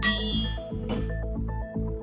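A news quiz signal chime, marking that the quizmaster has finished reading a question, plays as a short run of bright, ringing tones, several notes in a quick steady rhythm, rich and fairly loud, with no one talking.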